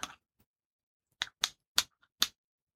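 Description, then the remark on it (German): A utensil stirs pesto in a freshly opened glass jar, giving a handful of sharp clinks and scrapes at uneven intervals, with short silences between and no talking. “Müssen noch ein bisschen umrühren.”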